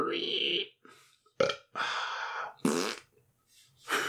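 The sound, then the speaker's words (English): A voice mimics a string of burps and a fart, several loud bursts with raspy, buzzing textures separated by short pauses, with no actual words spoken. “That's what H.G. Wells says. He just burps and farts.”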